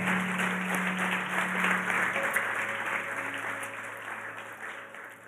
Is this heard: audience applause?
yes